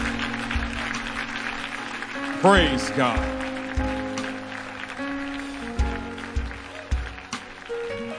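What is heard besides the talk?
audience clapping hands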